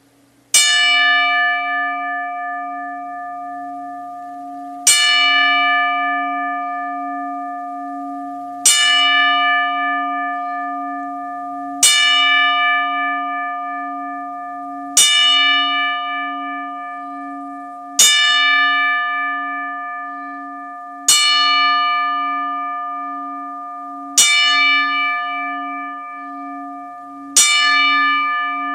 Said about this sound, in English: We will now play a 10 bell salute in honor of Scott Hall's career